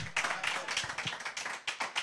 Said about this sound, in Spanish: Le das un aplauso fuerte al Señor. Can you give the Lord a hand clap?